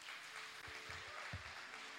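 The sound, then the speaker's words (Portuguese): A church audience breaks into dense, steady applause for Jesus, a continuous wash of many hands clapping at once with a few heavier claps standing out, and no one speaking over it. “Então dá um aplauso a Jesus.”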